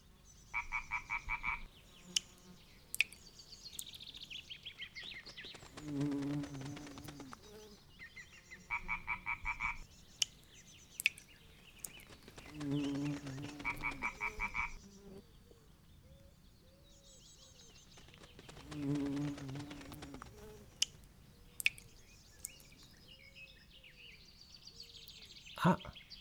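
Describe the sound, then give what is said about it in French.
Small pond ambience: frogs croak in repeating bursts every few seconds, mixed with buzzy, insect-like trills and scattered clicks, moderately loud, with no talking. “Écoutons-le ensemble un instant, ainsi que les autres bruits de la petite mare.”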